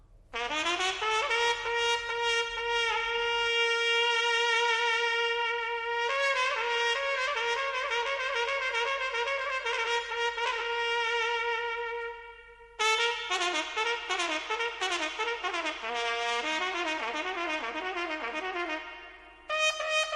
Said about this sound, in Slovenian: Temu glasbilu je ime trobenta. Njo ste že kdaj srečali ali slišali, kaj ne? Tako zna trobenta peti sama.